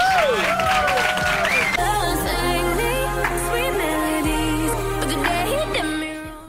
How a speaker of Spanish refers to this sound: Un fuerte aplauso para Luján Argüelles.